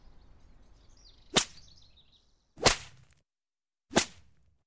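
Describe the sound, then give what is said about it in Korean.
Three sharp, snapping lashes land at a slow, steady pace as a burly farmer whips a bare-backed boy of about fifteen, tied to an oak tree, with a belt; each a loud crack that fades quickly, with faint low rumbling between them and no voices. “신음소리가 바로 그 아이의 것인 게 틀림없는 것이 몸집이 좋은 농부가 혁대로 아이를 바구 매질하고 있었다.”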